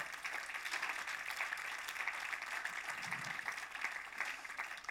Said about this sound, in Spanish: Ok, da un aplauso, Señor, si aprendiste algo, amén.